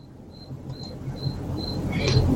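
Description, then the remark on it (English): A coquí frog, a type of frog in Puerto Rico, calls in a steady series of short, high-pitched chirps, about five evenly spaced notes, moderately faint against a rising bed of outdoor background noise. “I definitely actually that is a, called a coquí. It's a type of frog in Puerto Rico, and if you go outside, you would hear a symphony of them.”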